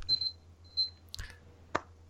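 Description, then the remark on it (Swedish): A kitchen timer alarm for boiling potatoes sounds two short bursts of high electronic beeping, followed by a couple of sharp clicks or knocks. It is fairly quiet, with no talking. “Är det något larm, larm som går där nu? Ja, det är potatislarmet.”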